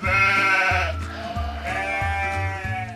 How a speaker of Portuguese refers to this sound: Para que as mágoas embale, quando tresmalha sozinha, que faz a branca ovelhinha? Bale.